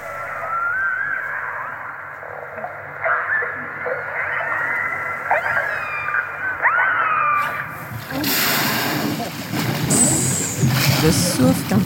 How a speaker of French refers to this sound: On parle souvent du monde du silence depuis le documentaire de Cousteau, mais les baleines font du bruit. Elles utilisent une large palette de sons qu'elles émettent souvent en cœur. Tiens, écoute ça.